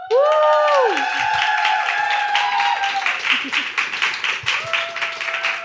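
A crowd applauds steadily to welcome guest Phoenix Kühnertz, with bright, dense clapping and some cheering, while high whistles and whoops glide up and down over the noise throughout the burst.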